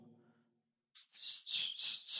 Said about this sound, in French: Non, euh, c'est un œuf, un shaker en forme d'œuf. Ben, ça, c'était supposé représenter un peu le son qu'on entend quand on scie du bois.